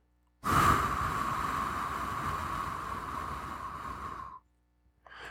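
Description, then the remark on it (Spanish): A long, steady breath pushed out through the mouth as part of a breathing exercise, a soft airy rush lasting about four seconds, fairly loud, then a brief silence before a faint new breath begins. “Mantén la respiración durante 3 segundos y ahora exhala por la boca durante 5 segundos.”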